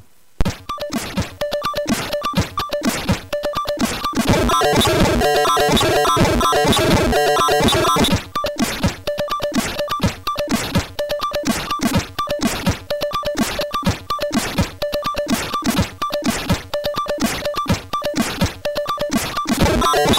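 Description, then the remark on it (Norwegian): Retro 1980s music from the video game Mega Apocalypse with a pounding drum beat: a dense, busy section for the first eight seconds, then a sparser, driving rhythm of sharp hits over bright tones. “jeg har musikk fra et spill som eh, også kom denne måneden”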